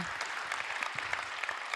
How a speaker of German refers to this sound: Könnt ihr denen mal einen richtig fetten Applaus geben? Mega, mega, was sie machen.